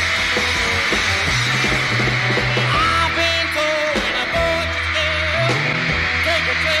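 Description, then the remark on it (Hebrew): A live band plays loudly with steady bass and sustained notes while a crowd's high-pitched screaming washes over the whole performance, dense and constant throughout, on a live concert album recorded in Hollywood. “הכל פה עם, עם צווחות לכל האורך.”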